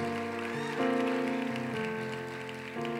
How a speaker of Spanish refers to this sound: Yo quiero que una iglesia aplauda fuerte. Si va a aplaudir, por favor.